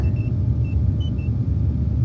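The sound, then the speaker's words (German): A computer boot-up sound effect from the start of the video game Command & Conquer: a steady low, droning hum runs throughout, with several faint, short high-pitched blips scattered irregularly over it. No one speaks. “ich muss nur diesen, dieses IVA-Boot abhören am Anfang des Spiels und schon weiß ich, es ist Command and Conquer.”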